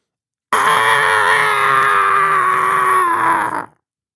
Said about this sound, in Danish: men udenfor har vinden taget til og kamuflerer et langtrukket, klagende skrig oppe fra hytten på bakketoppen.